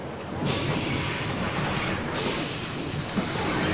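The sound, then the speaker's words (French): A bus pulls in at a stop in Montgomery, its broad rumbling roar rising after a brief quiet, with thin high brake squeals sliding over the steady noise as it comes to a stop. “D'ailleurs, revenons tout de suite à Montgomery, car ça y est, tu entends oh! Son bus vient enfin d'arriver”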